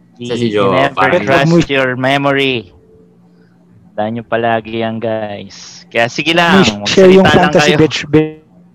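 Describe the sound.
A voice comes through a call connection that keeps breaking up, words cutting off abruptly with a brief dead silence in the middle before the choppy speech resumes.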